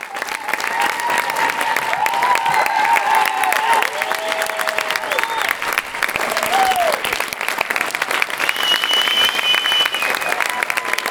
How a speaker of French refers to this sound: Une véritable ovation, tout le monde s'est levé, des applaudissements qui ont duré plus de 5 minutes. Un véritable cri du cœur collectif.